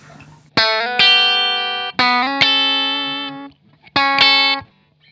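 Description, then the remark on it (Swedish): Electric guitar played through a distortion pedal, several loud picked notes and chords with sharp attacks and long, buzzy sustain, alone with no voices. “Och här ser man ju märker man ju väldigt tydligt i så här spelkänsla.”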